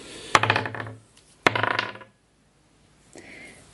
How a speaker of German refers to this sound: Aber ähm, die Rattenrettungswurf, genau, die haben pauschal 13. Okay. Ich würfel für eine.